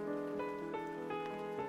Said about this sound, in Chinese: 在这样一个有雨的夜晚，找一段合适的音乐，捧一杯飘着香气的热茶，听雨滴滴答答的敲打窗户，心就会出奇的安静下来。